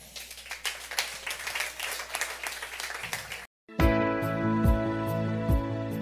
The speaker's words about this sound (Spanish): dar un aplauso fuerte al rey.